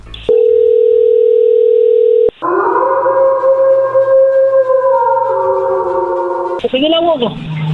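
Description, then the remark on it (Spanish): A steady, loud telephone tone hums for about two seconds, then gives way to a longer wavering line tone as a call is placed, before a voice begins speaking at the end. “Dos años, ella tiene 36. Y tú 34, bien, ahí se está marcando.”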